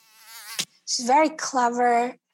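A mosquito's thin, wavering whine buzzes in a few short passes, rising and dipping in pitch with brief gaps between, with no talking.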